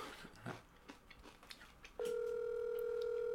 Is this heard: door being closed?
no